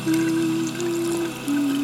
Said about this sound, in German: Sie zwingt sich dazu, das fließende Wasser zwischen den Fingern zu genießen, drängt die Angst zurück.